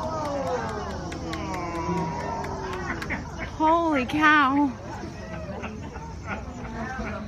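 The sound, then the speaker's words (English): Several people murmur and exclaim in amazement outdoors on the Connecticut shore in fall, one loud drawn-out exclamation rising above a steady hubbub, while faint rapid twittering and clicks from a migrating tree swallow flock patter in the background. “Now, you're hearing people reacting to tree swallows.”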